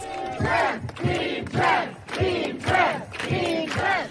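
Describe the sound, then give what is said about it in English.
A crowd of protesters at a demonstration outside Netflix in Los Angeles shouts the chant "Team Trans" in unison, the short phrase repeating roughly every half second, loud with a dense wash of many voices. “That is the sound of protesters shouting Team Trans from yesterday's demonstration outside of Netflix here where I am in Los Angeles.”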